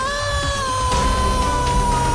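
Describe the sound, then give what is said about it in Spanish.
A loud, sustained scream of pain from the top of a tower holds one strained pitch for about two seconds, piercing, with a rougher burst of noise rising in its middle and no talking around it. “Se escuchó un grito de dolor en lo alto de la torre.”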